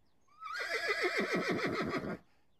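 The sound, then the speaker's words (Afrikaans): A single loud whinny from a small grey horse rises sharply, then shakes downward in a rapid quavering series before cutting off, heard alone with no talking. “Sy pa is net van plan om hulle klein grys perd na die veld naby hulle huis toe te vat om te gaan wei.”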